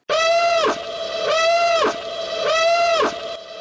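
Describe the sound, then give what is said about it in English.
A loud, sci-fi starship battle alarm blares in three repeating cycles, each a buzzy harmonic tone that holds steady and then sags downward before restarting. No voices. “So, so as as as Tia and Kroder exit the room, and, and Worm opens his bag and gets ready to dig into some spice, an alarm starts going off”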